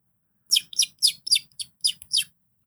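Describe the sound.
A person whistles an imitation of a very small bird, about eight quick, bright chirps in a steady run, clear with no talking.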